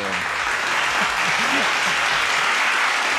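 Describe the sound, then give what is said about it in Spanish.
Steady audience applause fills the whole stretch, dense and fairly loud, with a few faint voices calling out low beneath the clapping. “Aplausos, señor. Un aplauso porque ya han”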